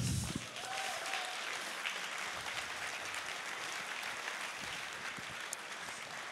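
Steady audience applause, a dense wash of many hands clapping that holds at an even level for several seconds with no voices over it.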